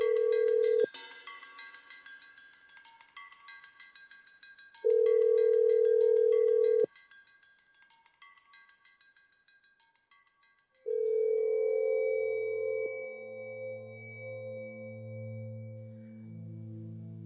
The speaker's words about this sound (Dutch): Maar ik vind het, ik vind het idee van het telefoongesprek wel leuk. Dat, dat je zo tuut tuut hoort.